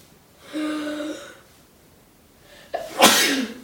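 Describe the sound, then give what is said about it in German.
One loud sneeze: a drawn-out voiced intake, a short pause, then a sharp burst of breathy noise. Nobody speaks. “ja, Gesundheit.”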